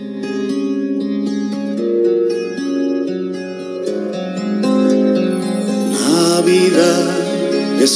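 Instrumental opening of a Christmas song: steady, sustained melodic harmonies that swell and brighten toward the end, played alone with no voices.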